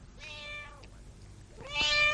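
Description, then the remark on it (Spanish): Two distinct meows from a white cat named Popsy, a drawn-out one followed by a louder, rising one after a short pause, clear with no talking. “Después, mientras cruzaba por el pasillo, su mirada se clavó en el gato Popsy, el menino blanco levantó su cabecita mirando al niño.”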